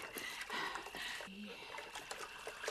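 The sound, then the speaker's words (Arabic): Water poured by a person over themselves splashes and trickles steadily for a few seconds, a continuous pouring sound with brief bursts of heavier splashing and no clear speech. “وانا نصب في الماء على روحي”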